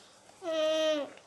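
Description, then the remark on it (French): A child's voice imitates a crying baby with a single sustained, high wail lasting about half a second, steady in pitch and fairly loud, with no other talking. “Qui sait faire le bruit d'un bébé qui pleure Vas-y.”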